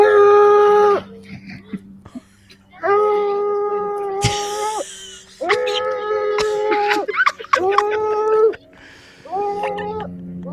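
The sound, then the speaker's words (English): A dog howls in several long, wavering bursts with rich harmonics, pausing between each drawn-out, almost singing cry; fairly loud, sounding oddly human and comical. “I believe it's dog howling in a really funny way.”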